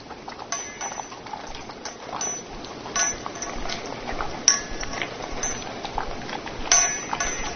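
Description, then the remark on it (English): Two dogs eating from bowls, with steady crunching and scraping broken by frequent metallic clinks and clatters as the bowls shift, with no voices. “Well, now we have the sound of happy dogs eating.”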